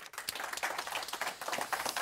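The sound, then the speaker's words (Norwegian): Audience applause for panel participants Thomas Næss, Ola Hofstad and Eivind Karlsen, thanking them for taking part: a dense, steady patter of many hands clapping at moderate volume, continuous through the whole stretch without a pause or voices. “Eh, Thomas Næss, Ola Hofstad og Eivind Karlsen, applaus til de.”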